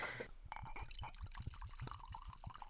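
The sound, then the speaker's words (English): Jameson Cooper's Croze whiskey, from the Whiskey Maker series, glugs steadily from a bottle into a glass, a quick run of rising gurgles, with no voices over the pour. “Yeah, I like the action here. I like the pour. sounds great.”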